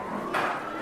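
New York City traffic rumbles outside the room while a police siren cuts in partway through, a steady wail riding over the street noise.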